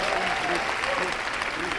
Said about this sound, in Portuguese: Vamos aplaudir o Senhor por esses líderes de célula aí, é meu não?